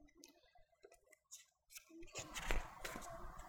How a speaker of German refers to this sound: Ich habe hier noch nicht das gute System fürs Umblättern. Ich hätte das zu Hause üben müssen. Einhändig am Notenständer.